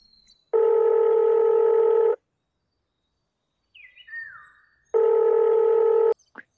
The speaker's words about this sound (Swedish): Vill du höra när jag ringde upp Sofia?